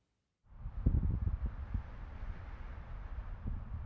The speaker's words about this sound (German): Palmwedel raschelnd im Wind.